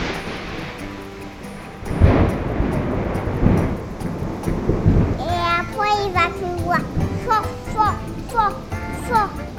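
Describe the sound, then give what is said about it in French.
A loud rumble of thunder from a violent tropical storm in Champasak, southern Laos, in October crashes in and rolls for a few seconds over a steady storm wash, then children's voices chatter over the fading noise. “Et après, il va y avoir le tonnerre.”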